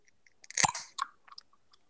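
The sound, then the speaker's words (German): A fizzy drink is cracked open with a short, sharp hiss, followed by a few faint, scattered fizzing crackles. Fairly quiet, with no one talking. “Das klingt auch spritzig.”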